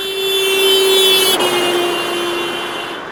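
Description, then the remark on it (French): A car sounds its horn steadily as it passes a person standing still on a sidewalk, its pitch dropping noticeably midway through as it goes by, then continuing lower and slightly fainter with road noise underneath. “Si une personne est immobile sur un trottoir et qu'une voiture actionne son klaxon en passant devant elle, voici ce que la personne peut percevoir.”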